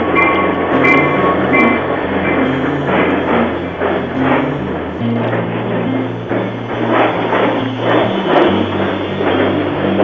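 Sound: train passing on rails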